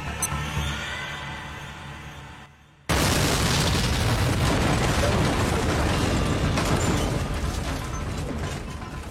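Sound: explosion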